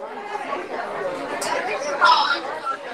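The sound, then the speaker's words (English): Dense crowd chatter fills a packed convention hall at DEF CON, many overlapping voices blending into a steady, loud murmur with no single speaker standing out, and a brief bright clatter near the end. “I don't know if you guys can see that, but um, there are so many people in here. So, so it's so loud.”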